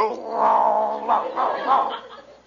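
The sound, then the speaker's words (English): A man down on all fours imitates a dog's growl, copying a dog, a drawn-out, wavering snarl that swells three times over a couple of seconds before trailing off, with no other talk. “He growls, so I'll growl.”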